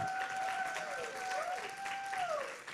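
Steady crowd applause welcoming a special guest fills the whole stretch, a dense wash of clapping that holds at an even level, with a thin sustained tone gliding up and down faintly above it.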